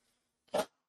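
A single sharp sneeze bursts out, loud and brief, standing alone against an otherwise quiet background.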